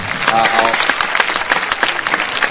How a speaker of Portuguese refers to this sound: Palmas, palmas, palmas.